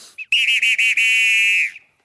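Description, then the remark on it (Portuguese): A loud referee's whistle with a trilling pea rattle: a quick chirp, a few short bursts, then one long sustained blast, heard alone with no talking. “Esse é, apito de terminar o jogo?”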